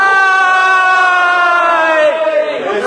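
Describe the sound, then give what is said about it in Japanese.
A crowd loudly cheers a kanpai toast, many voices shouting together in one sustained, high-pitched chorus that holds for about two seconds before trailing off into scattered, falling cries. “さあじゃあえっ、ー、と皆様もお手元に、えーと、届いたようですのですいません乾杯の温度取らさせていただきます今日は楽しく、ね、盛り上がっていきましょうそれでは乾杯”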